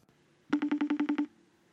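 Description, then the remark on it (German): A quick burst of about nine evenly spaced electronic telephone tones as a phone number is dialed to call someone, fairly loud, with no voices over it. “Ich rufe da jetzt einfach mal hier an.”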